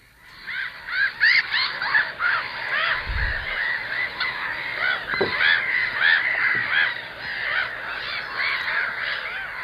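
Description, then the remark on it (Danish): A noisy chorus of black-headed gulls, many harsh, grating calls overlapping continuously as from a busy colony, steady throughout, with a low thump partway through. “Hættemåen tror jeg også mange kender lyden på.”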